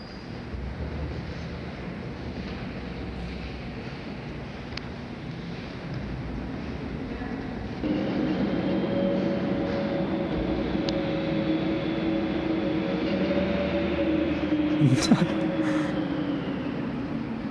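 A subway train rumbles through a metro station, the steady low roar swelling after a few seconds with a whining tonal hum and a brief screech near the end, no voices.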